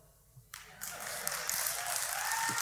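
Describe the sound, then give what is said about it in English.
A crowd breaks into applause, the clapping starting abruptly after a half-second of quiet and swelling into a steady, dense wash of many hands that holds at a strong level. “Now, you know, you may be watching online, or you may be in the room, and you're not one of them clapping, and you're saying you need to shut your mouth.”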